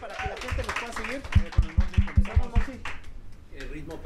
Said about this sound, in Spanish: bueno, un aplauso por favor.